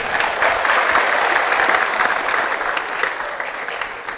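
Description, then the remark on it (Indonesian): Sustained applause from a large audience gathered in the morning at a school, SMK 14 Bandung: a dense wash of clapping hands that stays loud and steady throughout before easing slightly at the end. “Tepuk tangan buat semuanya.”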